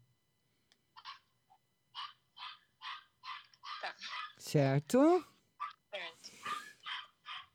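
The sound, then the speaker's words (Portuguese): A small dog yaps in a quick, steady series of high-pitched barks, then lets out a couple of louder, whiny yelps, with a person speaking briefly around them. “Olha o cachorrinho latindo.”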